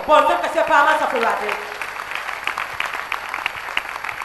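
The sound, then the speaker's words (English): A raised voice rings out briefly during a sermon, then a crowd breaks into steady, dense clapping, a moderately loud patter of many hands that carries on to the end. “Clap your hands for the”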